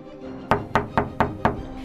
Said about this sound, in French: Lorsqu'il arrive devant la porte, il commence à taper dessus.